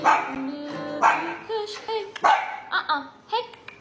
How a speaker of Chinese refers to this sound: 家中狗狗狂吠警告，神经大条的主人还叫它安静